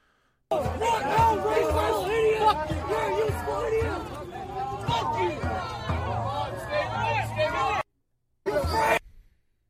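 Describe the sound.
A crowd of many voices at a street protest shouting and yelling over one another in a continuous, loud roar of raised voices, cutting off abruptly, then a short burst of shouting returns after a brief silence.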